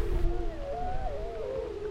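Several wolves howl together, their long wavering tones overlapping and gliding up and down, steady and fairly clear over a low, rumbling background, with no talking.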